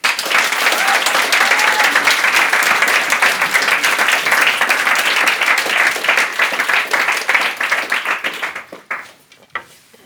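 Loud, sustained applause from a large audience fills the room for about eight seconds, a dense patter of many hands clapping, then thins out and fades to a few scattered claps.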